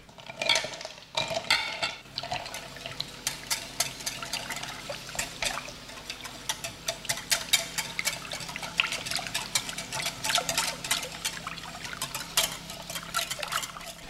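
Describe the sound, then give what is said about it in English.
Rapid, steady whisking of chocolate in a glass bowl, a continuous stream of bright clinking and scraping strokes against the glass, fairly loud and with no talking. “Um, but yeah, let's go ahead and whisk it.”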